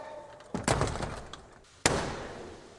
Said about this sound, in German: Doch erstmal wird Blackrod die Tür vor der Nase zugeschlagen, denn Vertreter des Oberhauses dürfen nicht ins Unterhaus.